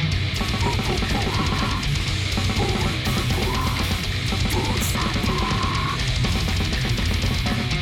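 A loud, dense stretch of music by a band from the village of Hemalang, Indonesia, with driving drums and distorted guitars, somewhat raw and lo-fi like a late-90s indie rock demo, playing steadily with no talking over it.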